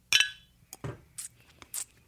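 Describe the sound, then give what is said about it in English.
A single bright clink of glasses touching in a toast, ringing briefly before fading, followed by a few soft, quieter knocks and sips with no talking. “So cheers, cheers to you, Miss Brown, and, and excellence in gayness.”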